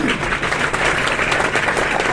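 An audience applauds, many hands clapping in a dense, steady wash of sound that stays loud and even throughout, with no distinct voices coming through.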